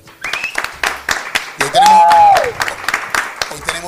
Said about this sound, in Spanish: No vale, esto merece un aplauso. Claro que sí.